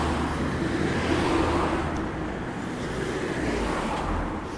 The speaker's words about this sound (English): And so a lot of people are staying inside, although I am still surprised to see so many cars passing me by.